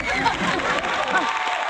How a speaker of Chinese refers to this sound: 掌声欢迎。